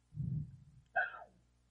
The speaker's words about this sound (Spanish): Un día de estos voy a regalar a mi perro porque nada más está ladre y ladre y no me deja grabar. Seguramente porque está viendo a alguien.